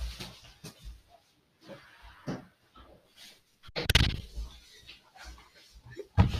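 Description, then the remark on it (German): Footsteps and shuffling lead up to a big door swinging shut with a loud, heavy thud, followed by quieter bumps and a final sharp knock. “Ich muss wieder eine große Tür zu machen.”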